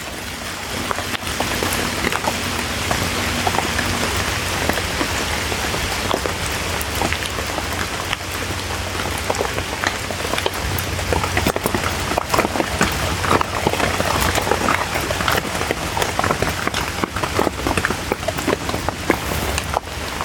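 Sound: rain falling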